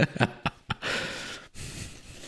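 A few quick, close nasal sniffs, then a longer airy breath through the nose with a faint whistling edge, heard alone with no talking.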